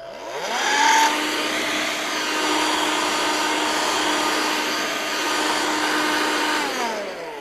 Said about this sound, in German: Und ich möchte es mal versuchen, hier mit so einem Staubsauger, ähm, so einem Handstaubsauger äh, zu verdeutlichen.